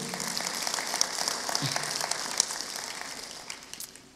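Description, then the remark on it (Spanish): An audience applauds the Lord together, a dense, steady wash of many hands clapping that holds for several seconds and begins to thin out toward the end. “Así que en el aplaudo al Señor, está bien, aplaudo al Señor.”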